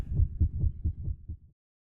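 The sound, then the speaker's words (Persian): A rapid, muffled heartbeat thumps low and steady, about six quick beats in a row before cutting off abruptly, with no voices. “نوعی از خستگی که با افزایش ضربان قلب و میزان استرس ارتباط مستقیم داره”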